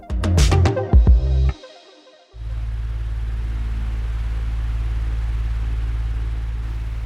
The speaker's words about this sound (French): Non, c'est pas le c'est pas le bruit d'une climatisation que vous entendez, c'est c'est celui de mon ventilateur, mais là j'avoue que je rêverais d'une climatisation.